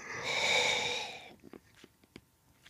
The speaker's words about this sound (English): I'm so frustrated, guys, I can't tell you with this yawning. Um I don't want to be this tired. I don't want to.